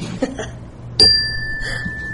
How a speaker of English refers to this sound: and I would say, "Oh, Tony, that's a bell,"